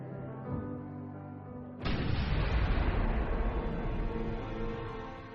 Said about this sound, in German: Er stellt die Bombe draußen auf eine Klimaanlage. Sie hat einen Zeitzünder und ist so programmiert, dass sie während des Sonntagsgottesdienstes explodiert.